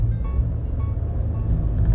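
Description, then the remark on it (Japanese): A steady low rumble of road and engine noise fills a passenger car cabin while driving with the air conditioning running strongly, constant and fairly loud, with no voices over it. “うんしかし暑いなでもね今乗用車なんでだいぶクーラーが効いております”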